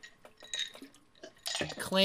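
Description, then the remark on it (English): A few light, bright, quick clinks of glasses tapping together in a New Year's toast to 2022, followed by a burst of laughter and voices. “clink, clink, clink, clink, clink.”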